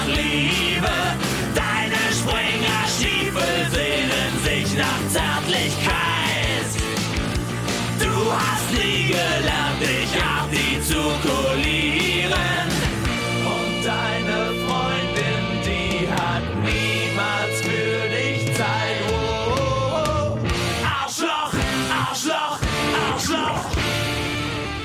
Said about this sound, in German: dann denken wir an das Jahr 1993 und ein Lied über den Rechtsextremismus in Deutschland.